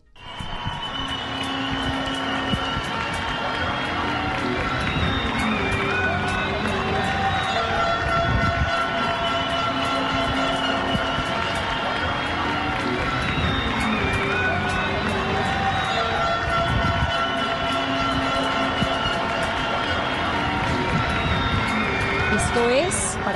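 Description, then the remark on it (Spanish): A large crowd of citizens in Colombian cities claps and cheers nonstop for doctors, nurses, bacteriologists and health service workers, a dense wash of applause with whistles and shouted voices blending together, sustained at a steady loud level throughout. “escuchen ustedes cómo Colombia está aplaudiendo a sus médicos, a sus enfermeras, a sus bacteriólogos y les están dando ánimo, les estamos dando ánimo”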